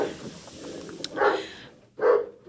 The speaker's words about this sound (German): Entschuldige, da klingelt es kurz, bellende Hundchen. Und der schwarze Hund springt immer auf den blonden Hund vor Aufregung.